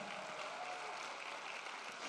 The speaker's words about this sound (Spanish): Alguien le da un aplauso fuerte al Señor.